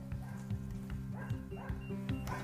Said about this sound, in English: there's probably going to be a lot of dogs barking here. I'm so sorry. I'm, you know, doing life. Maybe they'll calm down.